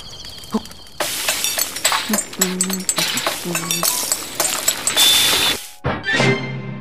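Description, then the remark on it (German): The item crafting jingle from the video game Breath of the Wild, played on making honey candy: a busy run of bright metallic clinks and rattles, a brief break, then a short bouncy musical flourish to finish, with no voices. “Oh dieser Sound, der uns nicht nur jetzt ein Item verspricht, sondern uns allgemein zu diesem Crafting-System und zu diesem Honigbonbon, was wir uns gerade gemacht haben, äh, uns ein sehr motivierendes Gefühl gibt.”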